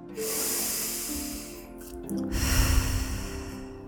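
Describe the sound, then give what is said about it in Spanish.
A slow, deep breath taken before moving on to the next round: a long airy inhale through the nose, a brief pause, then a fuller, breathy exhale through the mouth, fairly loud over a faint steady background tone. “Haz una respiración profunda antes de pasar a la próxima ronda, inhalando por la nariz y exhalando por la boca.”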